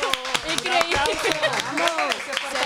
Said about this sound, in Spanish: un aplauso.